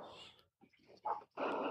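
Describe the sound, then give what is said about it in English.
A neighbor's dog barks in a quick run of several rough, harmonic barks with short gaps between them, heard alone. “It's a neighbor's dog.”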